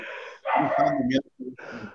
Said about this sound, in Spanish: Y siguen ladrando los perros del Dexman.